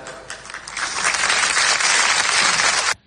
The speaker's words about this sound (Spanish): Yo creo que ha sido el momento más emocionante, ¿no? Todo el mundo aplaudiendo.